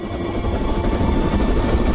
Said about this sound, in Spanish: Sam mira absorto como el tren ralentiza su marcha.